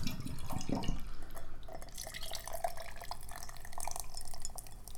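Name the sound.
ice clinking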